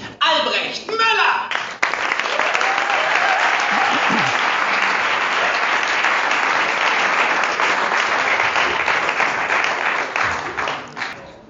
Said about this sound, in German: Aber erstmal klatschen auf die Bühne für euch!